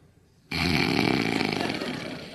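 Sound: voice imitating snoring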